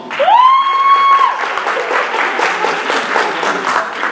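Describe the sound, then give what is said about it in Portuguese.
A crowd claps steadily and densely for several seconds, opening with a loud, rising whistle that holds briefly before the applause carries on alone; audience members who like the show Big Brother clap when asked to. “As pessoas que, são, que gostam do Big Brother, batam palmas.”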